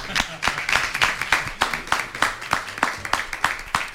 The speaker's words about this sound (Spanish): Bueno, pues vamos a darle un aplauso, ¿no? Ya que estamos...